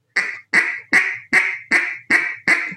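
A duck call is blown with bouncing air, sounding seven loud quacks in a quick, steady rhythm. Each note starts abruptly with a bouncy, twangy, rubber-band quality, and no voices are present.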